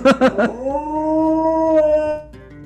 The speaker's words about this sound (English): I mean, she did it like she did it on her walk earlier today too. I'm like, what the heck is? She howled for over five minutes.